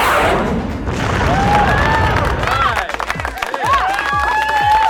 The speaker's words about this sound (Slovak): daj si, pod, daj si potlesk.